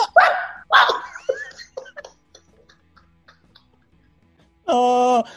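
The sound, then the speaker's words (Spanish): A person imitates a barking puppy: a quick run of short, yappy barks, a pause with faint noises, then one loud, drawn-out whining yelp at the end. “dime perrito, ey, el bebé.”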